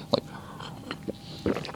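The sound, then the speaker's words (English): Someone imitates taking a big slurp of malt whiskey with their mouth: a few short, wet, crunchy bursts, spaced unevenly, with the loudest at the start and near the end. “You see, you don't take a malt whiskey and just throw it down your throat. You know, like take a big slurp”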